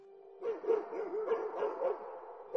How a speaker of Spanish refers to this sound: Vale, vosotros vais oyendo, no sé si oís esto lo que he puesto. Sí, sí, sí, Vale, pues oís eso, perros, voces, ¿vale? Es, antorchas que se, que se mueven.